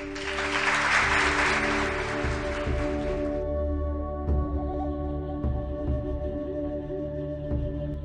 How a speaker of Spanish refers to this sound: Aplausito.